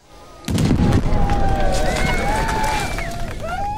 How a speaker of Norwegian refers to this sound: EU-tilhengernes sprengning av den symbolske muren i Tromsø Eksplosjonen den var kraftig. Det regnet glødende isoporbiter nedover tilskuerne.